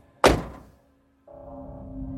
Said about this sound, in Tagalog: Lumipas ang ilang minuto, nakarinig ako na parang may nagbukas ng pinto ng sasakyan pagkatapos ay umuga ito na parang may pumasok sa loob. Saka sumara ulit ang pinto.